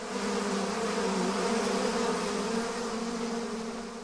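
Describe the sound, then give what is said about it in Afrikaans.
A dense, steady swarm of angry bees buzzes loudly as they fly out of a hive, driven out by smoke from a burning stick pushed into it; a continuous droning hum with layered tones that holds for several seconds before easing slightly, no voices present. “Die bye vlieg vervaard uit, baie kwaad en baie gemeen.”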